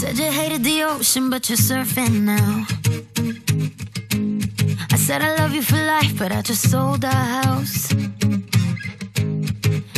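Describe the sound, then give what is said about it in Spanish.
A pop song, a collaboration duet, plays loudly and steadily on the radio show Me Pones Más on Europa FM, with sung vocals riding over a full band and a driving beat for the whole stretch. “que han hecho una colaboración de lujo y suena así de bien.”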